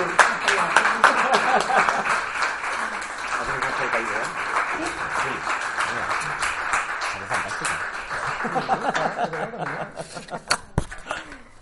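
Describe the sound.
An audience breaks into steady, dense applause mixed with some laughter and cheering, while people talk over it; the clapping thins out near the end.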